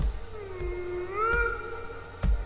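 A whale calls with a long, moaning tone that dips and then rises, its harmonics sweeping upward near the middle, over a low rumble with a couple of dull thumps.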